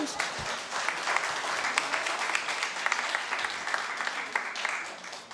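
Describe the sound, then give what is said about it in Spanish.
An audience applauds in a dense, steady patter of many hands clapping together, holding at an even level for about five seconds before easing off slightly at the end. “Yo pensé que iban a aplaudir.”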